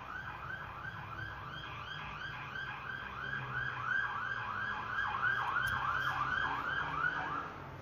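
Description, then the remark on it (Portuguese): A police car siren wails in rapid, repeating up-and-down sweeps in the street, growing somewhat louder midway before easing off slightly, over a low rumble of traffic. “Ó, tá tendo um carro de polícia aqui na rua.”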